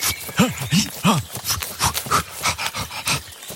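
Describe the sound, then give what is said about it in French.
A papa bear growls in a rapid series of low, rising-and-falling grunts and snarls, loud and throaty, continuing without pause for a few seconds with no talking over it. “Qu'est-ce que c'est que ce bruit Professeur, un, papa ours là, au-dessus de votre épaule.”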